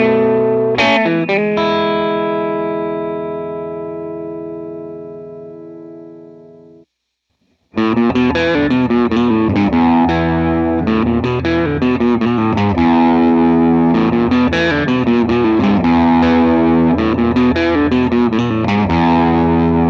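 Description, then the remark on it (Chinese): An overdriven Matchless DC30 tube guitar amp rings out a sustained distorted chord that slowly decays, then after a brief silence launches into a loud, continuous crunchy riff with rich harmonic grit. “好了，那咱们来听一下这一款以昂贵著称的 Matchless DC 三零的过载声音。”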